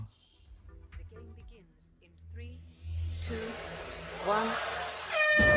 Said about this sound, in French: on va lancer le mm. jingle. Tu vas entendre 5, 4, 3, 2, 1. Tu as un gros buzzer